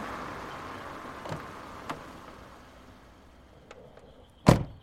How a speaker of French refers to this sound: La sonnette résonna quelques minutes plus tard dans la maison. Le grand-père ouvrit la porte.